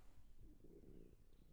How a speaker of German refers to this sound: Das war mein Magen. Sorry, ich habe Hunger.